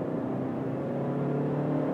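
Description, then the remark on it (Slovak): A car engine holds a steady, droning hum at a constant pitch, the continuous whine of a CVT transmission keeping revs level rather than rising and falling. “je absolútne, perfektne počuť, že je to CVT.”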